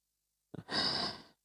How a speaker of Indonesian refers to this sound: sudah menguap saudara-saudara. Enggak apa-apa nanti oh, bentar lagi kan waktu ngantuknya itu lewat.